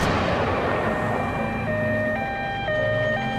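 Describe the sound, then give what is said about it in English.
A two-tone emergency siren wails steadily, alternating between pitches, over a dense low rumble of traffic and heavy military truck engines in Munich on a September morning in 1972, with no voices present. “That September morning in 1972, the people of Munich wake to the sound of sirens and the rumble of military trucks.”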